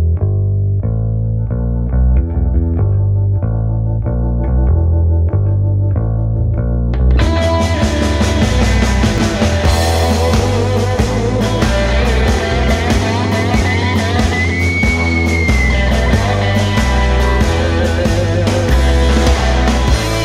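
A rock song with a restrained, mellow instrumental intro that bursts into a loud, full band with distorted guitars and driving drums about seven seconds in, continuing steadily with no voices.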